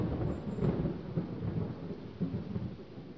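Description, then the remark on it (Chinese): Continuous low thunder rumbles steadily throughout, a deep rolling roar with a faint hiss of rain layered over it and no voices. “江水在风的吹拂下拍打着江岸，雷声不断的响。”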